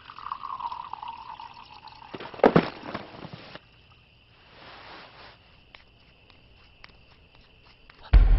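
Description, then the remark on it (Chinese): Water pours into a glass with a rising, filling tone, followed by a sharp clink of glassware and some light handling clatter, then a few faint footsteps. “好，我去倒水。”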